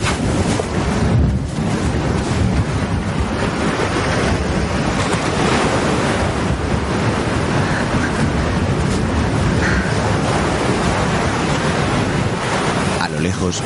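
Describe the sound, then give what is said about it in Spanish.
Ocean waves wash onto a beach with dunes in a loud, continuous roar of surf, a steady rushing hiss with gentle swells but no sharply separated crashes. No voices are heard. “A unas decenas de metros, Julio está sentado sobre una duna mirando las olas.”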